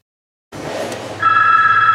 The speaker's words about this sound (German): Telefon. Büro.